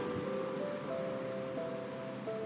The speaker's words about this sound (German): Du nimmst das leichte Meeresrauschen wahr, den sanften Rhythmus der Wellen, den Rhythmus des Lebens.